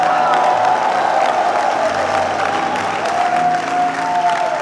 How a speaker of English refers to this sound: You want to clap, clap. You want to give God a mighty ovation. Yes, you want to make a joyful noise, make a joyful noise.